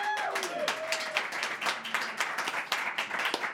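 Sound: audience applauding and cheering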